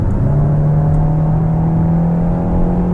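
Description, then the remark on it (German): A front-wheel-drive car's artificial sport engine sound, switched on via the menu and heard only in Sport mode: a steady, loud, low droning hum with a buzzy tonal edge, its pitch creeping slightly upward across the whole stretch, with no one talking. “Und da kann ich dann auch übers Menü einen künstlichen extra Sportsound dazu aufrufen, den man dann aber nur im Sportmodus hört.”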